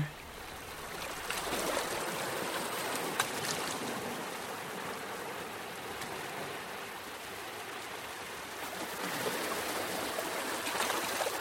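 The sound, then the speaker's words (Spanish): Steady wash of ocean surf rolling onto a shore, a continuous broad hiss of water with gentle swells rising and falling, heard alone without any voices. “Ahora te voy a pedir que te pares justo frente a estas olas del mar, en la orilla, que observes la fuerza,”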